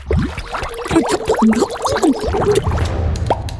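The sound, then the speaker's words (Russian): Water being poured into a mug, with a quick run of gurgling plops and glugs for a couple of seconds, then a rising tone as the mug fills. “Ну-ка, кружку, дай мне скорей.”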